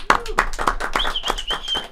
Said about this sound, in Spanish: Un fuerte aplauso